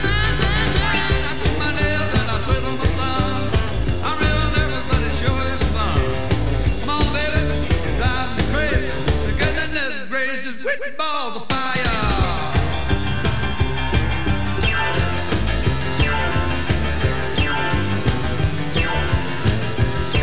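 An upbeat 1950s rock and roll piano song plays loudly and steadily, with driving rhythm, briefly thinning out midway during a sweeping run before the full band crashes back in.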